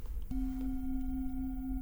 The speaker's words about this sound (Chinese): 其实颂钵就是让它声音直接传递出来。那因为我们现在录音可能有一些震动是没有办法表达，就是可以听一下这个声音。